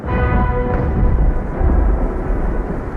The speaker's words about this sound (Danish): Men Jørgen vælger heldemodigt at tage kampen op og fyre alt sit krudt og alle sine kanonkugler af.